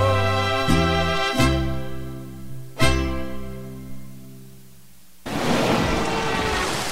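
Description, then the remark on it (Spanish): Tonal music with sharp plucked chord strikes gives way, in the last couple of seconds, to a steady, loud hiss of pouring rain in a winter-season promo for radio station La Sabrosona 94.5; no distinct thunderclap stands out. “La estación de invierno te salpica de alegría con lluvia de buenos programas.”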